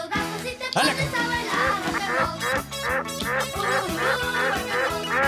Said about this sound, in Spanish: A ver, canta, a ver, canta, pato. ¡Órale!